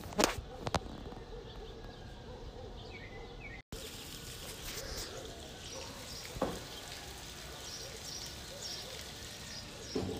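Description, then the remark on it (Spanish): Water runs and splashes steadily from an overflowing rooftop water tank in Tepoztlán, Mexico, going to waste, a constant hissing rush, with a few faint bird chirps in the background. “Ojalá se escuche ese algo que corre y no es de un río cercano, es un tinaco que se está desperdiciando el agua.”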